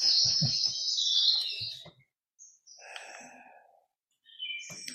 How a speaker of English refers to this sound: so the bird song is uh, nightingales singing, and there's a reason why we're hearing nightingales. Not that nightingales are native or indigenous to California, but they're indigenous to my home country, England, where they're currently uh, nesting.